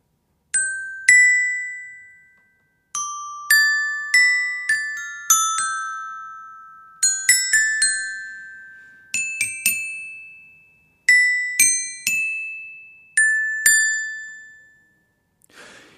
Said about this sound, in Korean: 실로폰 연주가 준비되어 있는데요. 제가 연주하는 곡을 듣고서 제목을 맞춰주시면 됩니다. 자, 그럼 첫 번째 부분 연주해 볼게요.